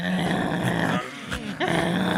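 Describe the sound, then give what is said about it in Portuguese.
A voice imitates a dog's growl: a low, rough, rumbling snarl held for about a second, a brief pause, then the growl returns just as gruff and loud. “Rosnando já.”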